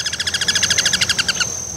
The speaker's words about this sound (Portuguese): Outros dois parentes do Cuco super conhecidos são o Ano Branco